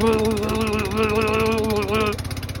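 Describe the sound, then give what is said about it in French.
A voice imitates the motor of a small fisherman's boat, a steady, buzzing putter held for about two seconds, then breaking into a few fading pulses as it trails off. “et un bruit de moteur qui faisait...”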